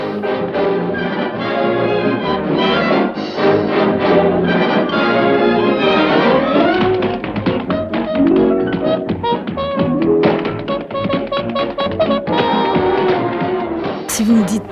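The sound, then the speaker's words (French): Tap dancing shoes click rapidly on a floor, sharp quick taps in bursts over loud, continuous band music playing throughout. “Donc cette popularité, évidemment, euh, se trouvait aussi dans les spectacles à Broadway, et dès que le film sonore est arrivé, on trouvait des claquettes au cinéma.”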